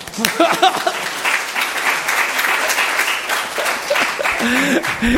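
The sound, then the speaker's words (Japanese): A crowd of people claps steadily for several seconds to encourage a man, a dense, sustained round of applause with a few voices calling out briefly over it near the start and end. “牧師の方がはるかに難しいですから先生を愛して支えて祈ってねえ福野先生いないから彼励まして拍手偉い”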